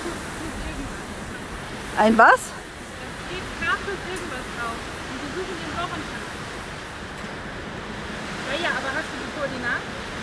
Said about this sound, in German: Wieso rauscht das hier eigentlich? Das, das ist doch schon längst weg. Ah. Es rauscht halt. Meeresrauschen. Ah, das hört sich anders an. Wasser, Ende des Meeresrauschens.